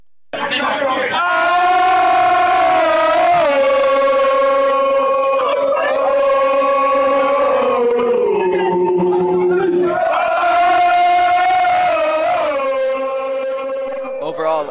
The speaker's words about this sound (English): Uh, the guys at Arrowheads Abroad and the fantastic crowd down in the Green Man saw us off with a good old tomahawk chop.